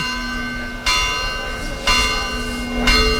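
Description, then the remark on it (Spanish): Church bells ring out in the village of the Virgen del Rocío procession in a steady series of three strikes about a second apart, each with a bright metallic attack and long humming resonance, heard alone with no voices. “Las campanas, los cohetes, es decir, se ha recuperado algo que durante dos años ha estado ausente.”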